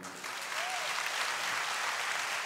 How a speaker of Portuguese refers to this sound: Quem está nessa fé, aplauda Ele.